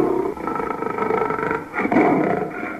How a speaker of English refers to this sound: lion yelped, shaking his paw in the air.